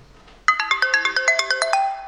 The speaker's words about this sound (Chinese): 我给大家听一听啊，黑莓的声音啊，这很多人都没听过黑莓的铃声到底什么样，其实可能会让你大失所望啊。